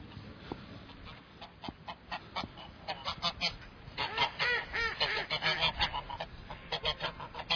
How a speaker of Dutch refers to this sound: Hé, ik zie hier ganzen zitten, zeg. Even dichterbij kijken.